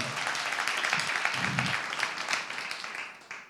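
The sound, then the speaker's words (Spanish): An audience breaks into sustained applause for the Lord during an evening service, many hands clapping in a dense, steady wash that holds for several seconds, with a few faint voices mixed in. “Yo creo que le podemos dar un aplauso más fuerte a nuestro Señor en esta noche, porque es una excelente noticia saber que hay alguien que puede hacer lo que tú no puedes hacer.”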